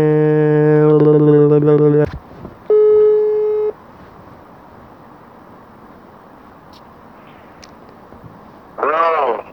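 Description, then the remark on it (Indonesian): A loud steady electronic phone tone, heard while placing a call, sounds for about two seconds, then after a short gap a second flat tone rings for about a second, followed by quiet background noise and a brief voice at the end. “Gak usah pakai tunggu lama langsung kita telepon orangnya”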